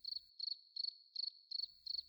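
Six short, pulsing cricket chirps repeat at a steady, even pace, each a bright trill over a faint low background hum, with no voices present.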